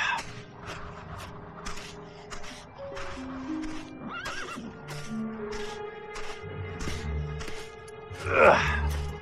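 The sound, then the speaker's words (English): A horse whinnies loudly while hooves clop in a steady, irregular rhythm on hard ground, with a snorting breath near the end. “There. Hold it. Hold it. Hold it, horse. There. Stay.”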